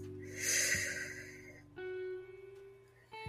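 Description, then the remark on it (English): During a guided relaxation, one long, deep cleansing breath is drawn in, airy, lasting over a second over a soft sustained musical drone, followed by steady tones after the breath fades. “Enjoy a deep cleansing breath”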